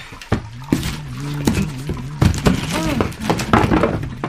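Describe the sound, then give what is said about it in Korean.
Delivery parcel boxes are shifted and set down with a series of dull thumps and scrapes, irregular and fairly loud, while voices talk and murmur over the handling. “여기 택배 받은 거 같이 정리 좀 하자. 여기 박스 좀 옮겨.”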